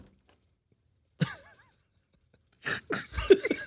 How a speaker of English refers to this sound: did you just snort? Yeah, I did. You did.